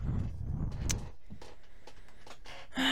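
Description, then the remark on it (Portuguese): A chair creaks and knocks several times in quick, irregular bursts as someone shifts their weight, with a low rumble at first and a sharper squeak at the end. “Eu tava fazendo um puta barulho na cadeira. Tá vendo o nheco-nheco da cadeira, meu?”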